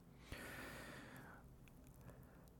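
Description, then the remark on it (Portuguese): A long, breathy yawn from a person recording at seven in the evening, drawn in with a soft rushing exhale that fades after about a second, with no talking. “Tipo assim, eu, sou, eu, eu não sei porque eu já tô bocejando já.”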